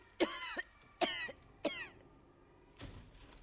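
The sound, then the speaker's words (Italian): A woman coughs in three sharp, evenly spaced bursts, followed by a softer, breathier fourth cough. No one speaks. “Signor, da capo la tosse.”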